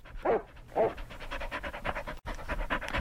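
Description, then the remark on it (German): A dog pants rapidly and steadily while running around a studio, quick breathy huffs in a continuous rhythm, with a couple of brief whiny vocal sounds near the start. “Ihr könnt es quasi schon hören. Denn unser Thema läuft hier gerade im Studio rum. Und macht gewissermaßen Fitness und Sport.”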